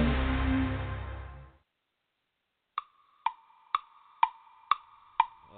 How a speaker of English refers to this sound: Each tick of the clock, the time draws near where there'll be hope for every team in the National Football League.